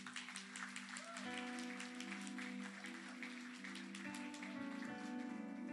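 A crowd claps in a dense, steady burst of applause lasting several seconds, with sustained musical chords humming underneath and no one speaking.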